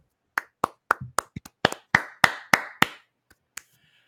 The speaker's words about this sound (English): First of all, Vincent Trocheck, let's give him a standing round of applause. 64% leading the league in face-offs.